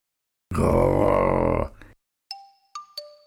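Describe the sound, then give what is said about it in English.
A harsh, loud cat snarl lasting about a second, followed after a short pause by three bright, ringing chime tones that sound one after another and fade. “He snarled.”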